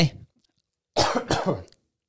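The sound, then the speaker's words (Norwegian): A loud cough in two harsh bursts, followed by a brief tail of an earlier sound at the start, then silence. “Det var den der hosten min.”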